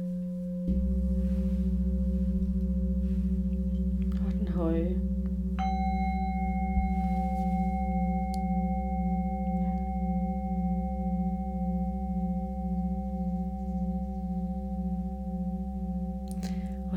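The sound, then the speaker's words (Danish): Singing bowls ring out: the middle bowl is struck and hums steadily, then the deep bowl joins about five seconds later, their long, pure tones overlapping and gently wavering as they blend. “det, der sker, når man hører flere skåle spille på én gang, så begynder de jo at blande sig med hinanden, og der begynder at blive dannet nye frekvenser.”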